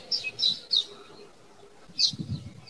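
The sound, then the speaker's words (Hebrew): Several short, bright bird chirps in quick bursts, then a pause and another chirp, heard outdoors on the top-floor rooftop of a building with a solar water heater and trees, with a soft low rumble of background noise. “הצליל שאתה שומע של הציפורים זה כי אני על הגג של סבא וסבתא שלי.”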